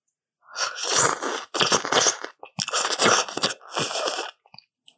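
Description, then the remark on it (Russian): Someone eats Doshirak instant noodles made without seasoning, with four wet, noisy bursts of slurping and chewing about a second each, separated by brief pauses, ending in a few faint clicks. “Ты ешь какую-то лапшу ты попросила ребят заварить доширак, ешь доширак просто без специй, чтобы он не пах.”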